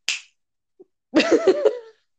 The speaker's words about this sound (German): Klatsch.